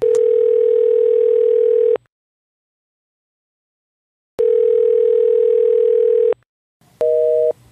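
An outgoing telephone ringback tone from a call to an aunt: two long steady buzzing rings, each about two seconds with a pause between, then a brief higher double tone at the end. Clear, no talking.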